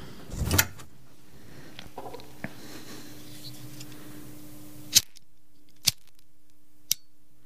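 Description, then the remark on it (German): A lighter flicks with a short scratchy strike and a soft steady hiss of flame, followed by three crisp clicks spaced about a second apart in near silence. “Feuerzeug klicken. Flamme.”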